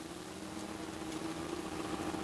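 A steady, low drone of two motorcycles entering Bacurau, in a scene from the film Bacurau, hums continuously at an even volume, with a rough, vibrating mid-range tone and no clear rise or fall. No voices are heard.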